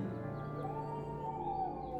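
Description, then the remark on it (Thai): A dog howls at around one or two in the morning in one long, sustained, wavering cry that rises slightly in pitch and holds steady at a moderate level throughout. “ประมาณตีหนึ่งตีสองหินจะดัดมาเจ้ากรรมก็เห่าหอนกระสนันวันไหว ตอนที่เรากำลังจะเข้านอน”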